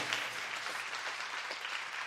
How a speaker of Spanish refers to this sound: Un aplauso al Señor.